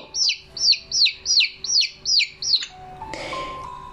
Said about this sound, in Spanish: Después, el pollito se acercó y le pió.